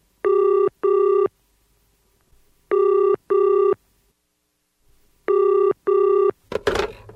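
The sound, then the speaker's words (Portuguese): An outgoing call from a recording studio rings on the line: three pairs of quick double ring tones with pauses between, steady and fairly loud, ending in a short clatter as the receiver is picked up. “… ficou mais um tempinho no estúdio e aproveitou para ligar para …”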